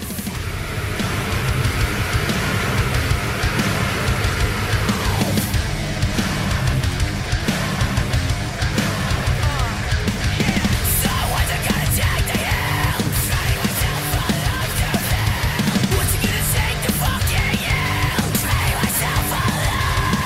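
A loud, dense post-hardcore song by an American rock band from Holmdel, New Jersey plays throughout, with heavy distorted guitars and pounding drums filling the mix and harsh, shouted vocals at a steady, driving intensity.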